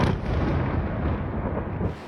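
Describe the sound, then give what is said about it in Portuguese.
A loud, sustained rumbling roar of an explosion following a drone's buzz, during a Russian attack on Kyiv, Ukraine, with Iranian-made drones, booming continuously for about two seconds with no voices, then easing slightly at the end. “Um zumbido seguido por uma explosão”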